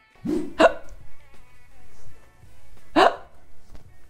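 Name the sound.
hiccups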